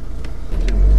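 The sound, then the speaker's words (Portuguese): A diesel car engine runs with a heavy low rumble that swells louder toward the end, as if revving, with brief hissing bursts above it. “Isto é um carro a diesel.”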